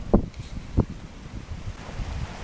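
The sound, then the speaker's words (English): Strong wind blows outdoors, buffeting the microphone with low rumbling gusts and a couple of sharp thumps near the start, steady rushing noise continuing throughout. “And it's real windy right now, so got to be real careful.”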